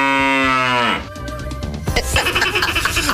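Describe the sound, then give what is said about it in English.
A person imitates a deer snort: a loud, drawn-out bellowing call, falling away into a rough, breathy huffing burst that fills the last second or so. “What's a deer snort sound like?”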